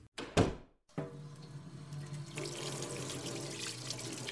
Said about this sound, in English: Festa Marilla has kind of pulled over a small stool and she's leaning into the sink uh, as she kind of starts to fill it with water.